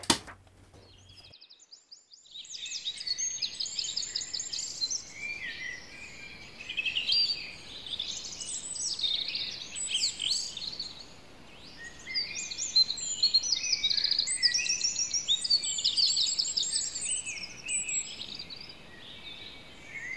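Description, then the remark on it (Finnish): A dense chorus of unfamiliar birdsong fills the air among deciduous and coniferous trees, many overlapping high chirps, trills and whistles running continuously, with no one speaking; recorded on a phone. “Siinä on lehtipuuta ja havupuuta ja niin, outoja linnun lauluja olette en ole koskaan kuullut.”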